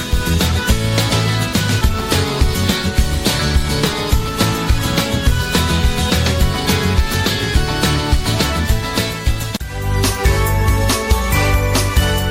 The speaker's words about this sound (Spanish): Estás escuchando el himno también de los misioneros servidores de la palabra. Y digo también porque es el segundo himno, Servidor de la Palabra se titula este canto, himno de los misioneros servidores de la palabra.